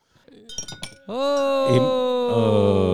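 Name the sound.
glasses clinking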